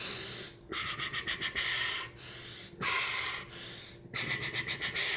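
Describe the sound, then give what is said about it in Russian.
A voice imitates the heavy, rhythmic breathing of a grappler during wrestling: loud alternating hissing inhales and exhales, some in quick pulsing bursts, repeated several times with no words. “Вот в борьбе он дышит и вот так дышит.”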